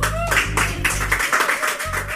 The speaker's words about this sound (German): Eine weitere Ausgabe von Cam FM ist für dich am Start. Wenn du am Start bist, das ist der Applaus.